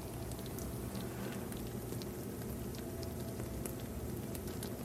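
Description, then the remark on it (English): A peach and almond tart bubbling fresh from the oven: a soft, steady sizzle with tiny crackles and pops, quiet, with no voices. “There's the tart bubbling outside of the oven.”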